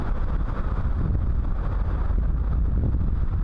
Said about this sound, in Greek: Στην Αττική το χαρακτηριστικό του καιρού είναι οι θυελώδεις νότιοι άνεμοι. Ενδεικτικές είναι εικόνες από την παραλία εδώ στο Φλίσβο.